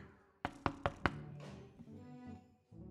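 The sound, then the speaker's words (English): Four firm knocks on a wooden door in quick, even succession, loud, followed by a faint lingering rumble and shuffling. “He knocks on the door”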